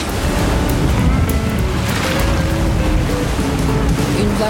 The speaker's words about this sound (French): Vous voyez une barrière de vague Il va falloir passer au travers. Ou euh. dessus, ou à côté, ou je sais pas. Il va falloir passer.